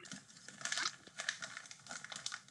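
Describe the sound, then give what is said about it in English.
Crinkling of a chocolate wrapper being opened, a steady run of crisp, rustling crackles lasting a couple of seconds, quiet, with no voices. “Going over the place out, opening chocolate.”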